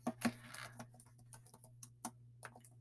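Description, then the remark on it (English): Quiet keyboard typing as someone searches on Google, a loose run of light clicks and taps at an irregular pace over a low steady hum, with no voices. “Um, I, I can hear the clickety clack. Clickety clack.”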